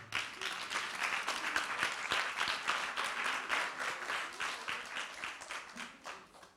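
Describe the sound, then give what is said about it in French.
A group of people applauds a child steadily for several seconds, a dense, even patter of many hands clapping, fading slightly toward the end. “Hein tu vas faire des exploits, ok Vas-y, on peut l'applaudir.”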